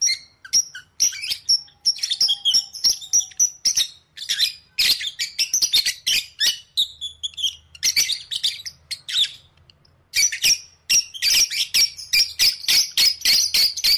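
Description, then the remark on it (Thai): A bird sings and chirps continuously in quick, high-pitched bursts and trills, fairly loud and busy, with brief pauses between phrases and no voices. “คำตอบก็คือ นกส่วนใหญ่จะร้องเพื่อประกาศอาณาเขต แล้วก็จีบนกตัวเมียไงล่ะคะ”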